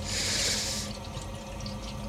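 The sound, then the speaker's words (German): Gurgling water noises from a heating radiator: a steady watery rush with bubbling and faint dripping, hissy at first then settling into an irregular trickle, with no voices. “Ich weiß jetzt nicht wirklich genau, woher diese seltsamen Geräusche aus meiner Heizung kommen”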